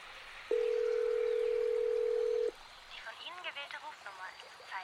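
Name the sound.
phone dial tone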